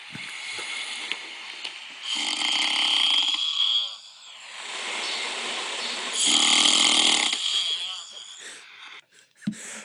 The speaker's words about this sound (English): that's … snoring